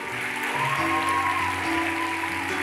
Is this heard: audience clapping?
yes